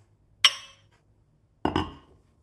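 mugs clinking together

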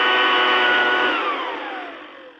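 cordless leaf blower running

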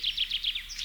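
birds chirping

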